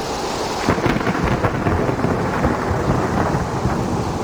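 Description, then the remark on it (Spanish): A raging hurricane over the jungle with heavy, steady rain and rumbling thunder, punctuated by sharper crackling bursts over a continuous loud roar. No voices. “Cuenta una leyenda del Mayá, que un día, debido a un huracán, la selva estuvo en peligro”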